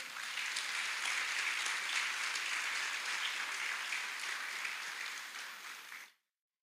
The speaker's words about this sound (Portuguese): Somente aqueles que amam a Jesus de todo o coração, dê um grande aplauso ao Senhor nessa hora.